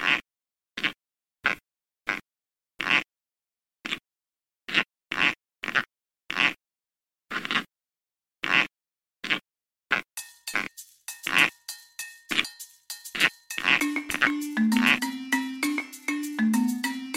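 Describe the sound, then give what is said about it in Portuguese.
About a dozen sharp, dry pops spaced irregularly against silence, from a snake's cloaca; after ten seconds, a busy musical jingle with bright tones and a low melody takes over. “Tocamos no último episódio um som, o que é chamado de cloacal popping, ou estalos cloacais de serpentes.”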